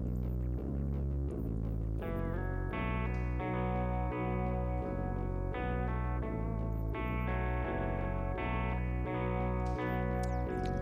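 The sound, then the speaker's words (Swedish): A horseback electro music track plays continuously with a steady pulsing synth rhythm, layered sustained tones and bright effects, loud with no talking. “Vi kör eh, lite horseback. elektro”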